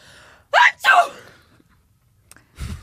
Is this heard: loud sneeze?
yes